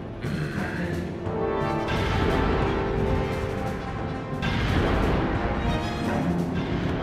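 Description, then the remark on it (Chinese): Massive blasting explosions erupt in two loud waves, each a dense, crackling roar with deep rumble that stays heavy and sustained rather than fading, with no voices. “爆破！ 第二次爆破！”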